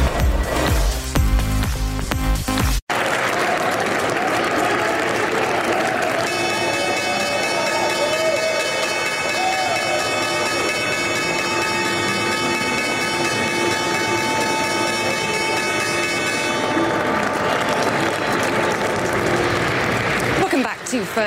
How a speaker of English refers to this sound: live from the New York Stock Exchange, and that was the opening bell. Some high fives there, but not helping the markets this morning.